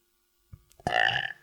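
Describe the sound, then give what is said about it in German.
A single loud, forced burp, deep and rasping, deliberately pressed out to be loud, swelling after a short throaty lead-in and sustained for about half a second, with no talking. “Ich habe extra gepresst, dass er ich laut ist. Ich habe dich noch nie rülpsen gehört.”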